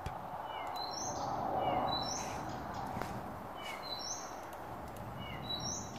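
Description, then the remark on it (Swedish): An icterine warbler sings a fast, varied song of short, high whistled phrases repeated in close succession, with mimicked notes, over a steady, rumbling background noise. “Men ja, preliminärt harmsångare, men mm. vi kör på det.”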